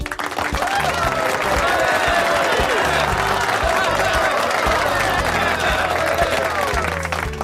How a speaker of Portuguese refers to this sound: Salva palmas.